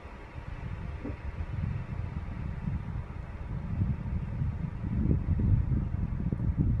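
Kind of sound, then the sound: nature, strong wind blowing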